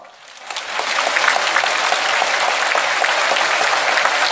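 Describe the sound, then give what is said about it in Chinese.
Applause from the audience at an auction, after the last vehicle is sold to a small boy in white sneakers, swells up within the first half second, then holds as a steady, dense wash of many hands clapping, bright and crackling with no voices standing out. “”会场鼓掌。”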